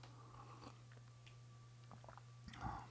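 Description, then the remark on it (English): A quiet sip of hot coffee, with a few small mouth clicks before a short slurp near the end, over a steady low electrical hum and no talking. “Have a sip of coffee first.”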